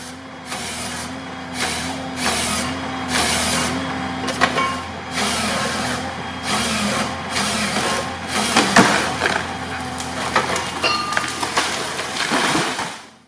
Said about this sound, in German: fast, fast. Äh, das waren die äh, Bäume, die fallen mussten, bevor wir Papier aus dem äh, Kopierer ziehen können. Aber in dem Fall müssen sie ja fallen für die